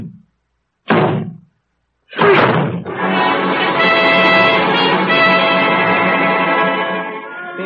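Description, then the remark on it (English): Two heavy thuds a second apart as people throw their shoulders against a door, then a loud splintering crash as it bursts open, followed by a long ringing, rattling reverberation that slowly fades. “How to break this door in, or rather we are.”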